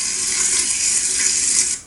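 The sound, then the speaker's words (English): Hot oil sizzles steadily in a frying pan, a bright, dense crackling hiss that holds constant for nearly two seconds before dropping off abruptly. No voices are heard. “Well, I was just waiting for the oil to finish sizzling.”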